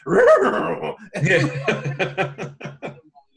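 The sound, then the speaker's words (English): A voice imitates a cartoonish dog yelp: a warbling, drawn-out cry followed by a rapid run of about eight short, bouncy yelping bursts that trail off, with no other talk. “all I can see in my head is Shaggy throwing the Scooby snack. It hits you in the face and you hear”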